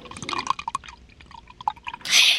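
Water pours into a glass in a quick series of bubbly glugs and splashes, ending in a brief louder hissing rush of liquid.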